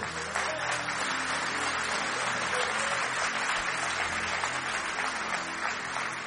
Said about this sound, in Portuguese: Você aplausa para ele?